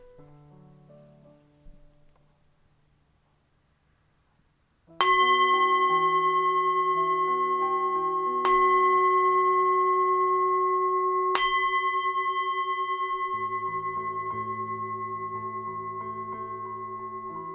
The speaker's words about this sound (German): Und zum Abschluss werde ich den Gong ein zweites Mal anschlagen.